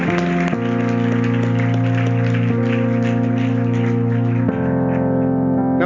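An audience claps steadily over sustained, droning organ chords, the dense patter of many hands running throughout the music at a fairly loud, even level, with no voices.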